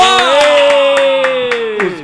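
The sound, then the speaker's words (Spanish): Thin, scattered applause for the Super Empanadilla team: a handful of sharp hand claps landing every quarter second or so over a steady, sustained tonal hum, more like a few people clapping than a full crowd. “¡Un aplauso para los super empanadilla”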